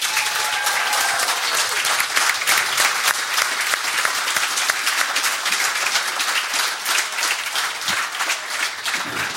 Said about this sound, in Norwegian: Ja, det syns jeg vi får ha applaus på.